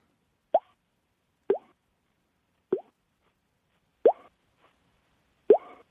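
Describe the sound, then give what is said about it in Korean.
A voice imitates water droplets dripping from eaves, using mouth and hand technique, with five crisp, hollow mouth plops spaced about a second apart, each a quick rising pop that sounds like a drip landing in water, with no talking. “물방울 소리 한번 내보겠습니다.”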